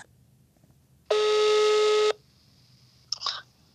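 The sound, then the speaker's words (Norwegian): A steady electronic phone tone sounds for about a second, clean and fairly loud, followed by a brief, fainter burst of connection beeps as a call placed by voice command through Siri goes through. “Jeg bruker stemmen til å ringe opp reporter”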